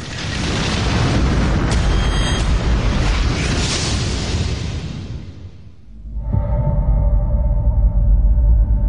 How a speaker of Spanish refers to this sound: Tres segundos después, los dos aviones chocan.